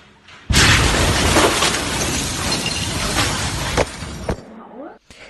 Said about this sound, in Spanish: Este que están oyendo es el sonido de la explosión del puerto de Beirut desde el interior de una iglesia cercana mientras se estaba celebrando la misa. Un sonido que de hecho se ha quedado grabado en la mente y en el corazón de todos los libaneses.